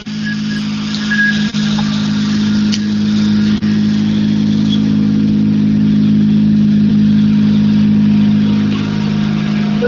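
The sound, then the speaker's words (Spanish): A Citroën C3 N5 rally car engine runs with a loud, steady, throaty drone that holds nearly constant for the whole stretch, with no one speaking. “con un Citroën C3 N5.”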